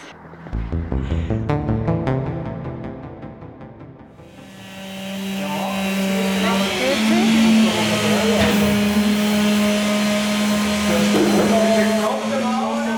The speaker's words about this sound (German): Da, schau, der Bus.